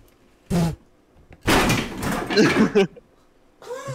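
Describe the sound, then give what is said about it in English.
A locked door in a house rattles and bangs, first a short sharp knock, then a longer burst of shaking and thumping against its frame, with a brief voice at the end. “You locked the doors in this house!”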